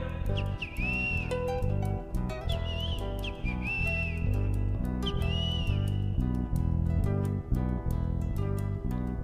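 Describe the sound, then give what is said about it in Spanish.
Great kiskadee calls ring out in several short, arched whistled bursts, repeating every couple of seconds over loud, steady rhythmic music that stays prominent throughout. “grita el bicho feo.”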